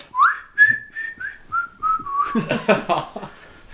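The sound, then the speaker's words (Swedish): A security guard, nearly dancing a little salsa to himself, whistles a short, lilting melody of several sliding notes, clear, before it breaks into breathy, airy sounds toward the end. “och visslade...”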